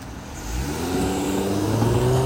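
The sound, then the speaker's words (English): A car engine hums in road traffic, its pitch climbing steadily as it accelerates past over a couple of seconds, with no voices. “Sorry, there's some traffic ahead of me.”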